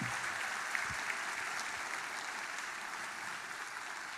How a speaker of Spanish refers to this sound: Ahora darle el mejor aplauso que le hayas dado al Señor en mucho tiempo.